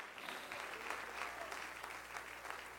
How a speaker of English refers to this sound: Clap your hands to Jesus all over the building.